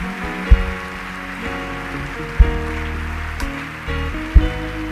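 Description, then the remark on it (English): Many hands clapping for people as they go, in a dense, steady patter, blended with sustained musical tones and a deep thump roughly every two seconds. No one speaks. “Put your hands together for them as they go.”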